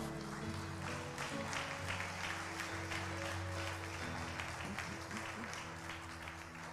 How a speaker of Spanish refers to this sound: Dale la gloria al Señor con un aplauso, vamos.